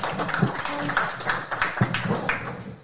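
An audience applauding three guests after their interview on a programme, a steady wash of many overlapping claps with a few sharper individual hits standing out, moderately loud throughout with faint voices mixed in.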